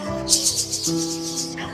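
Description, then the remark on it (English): A snake-like hissing pulses in a quick series of about eight rasping bursts, fairly loud, over a low steady humming tone, then fades out. “And now, sounds like a snake.”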